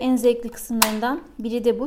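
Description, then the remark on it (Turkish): A single sharp clack as game tiles are thrown back into the game box and the latch inside clicks, cutting through speech near the middle, brief and fairly loud against the talking. “Çünkü böyle bir ses çıkarıyor içeriye düşerken.”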